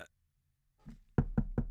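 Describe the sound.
Four sharp, evenly spaced loud knocks imitating a knock at a door, after a brief moment of near silence and a soft rustle.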